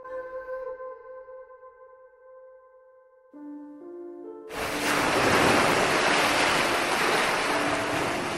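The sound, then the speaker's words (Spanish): Ocean waves crash in a loud, steady roar of surf against sharp rocks, arriving suddenly after several seconds of eerie, sustained droning tones. No one speaks. “Tanta soledad vuelve loco a cualquiera, pensó Nicasio, cuando observaba las olas formar sepulcrales figuras al chocar contra las filosas piedras.”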